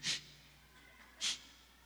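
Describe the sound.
Two sharp sniffs about a second apart, a voice imitating a man sniffling while crying, with quiet pauses around them and no speech.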